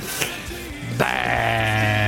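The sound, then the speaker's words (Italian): A sheep bleats loudly, a short call followed by a longer, sustained quavering bleat, with no one talking. “beh, beh, beh, beh, beh, la questione delle pecore,”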